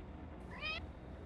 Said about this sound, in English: There's, this a cat. that is a cat. I heard that.